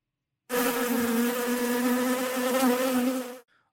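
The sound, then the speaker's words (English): A loud, steady bee buzz sound effect, played to start the 'bee or not the bee' game, drones continuously for about three seconds, unbroken, with a slight wavering hum before it cuts off abruptly. No one speaks. “now is a great time for us to play the bee or not the bee.”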